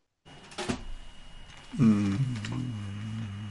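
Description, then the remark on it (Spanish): A single sharp thud of a bedroom door shutting as someone leaves the room, followed by someone humming a brief "mm" with faint room noise underneath. “Eso fue el sonido de tu puerta cerrándose porque te saliste de tu habitación.”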